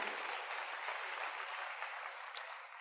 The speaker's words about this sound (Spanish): Álcelo fuerte, hermano. Si le vamos a aplaudir a Dios, que sea para Dios. Ese aplauso era para, no sé, alguien más.